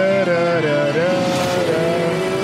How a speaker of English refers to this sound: He's like, I still like riding on this uh, runway. Yep, still like racing motorcycles.